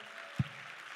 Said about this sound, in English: Can we clap our hands to the Lord tonight in Jesus' name?